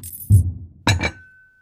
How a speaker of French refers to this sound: Moi j'entends des bruits de flaques et des bruits de couverts. Des verres, des assiettes, des chaises.